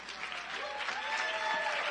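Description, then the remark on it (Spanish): Steady applause from an audience fills the space, a dense wash of many hands clapping at once, fairly loud and continuous throughout with no break. “Fuerte ese aplauso.”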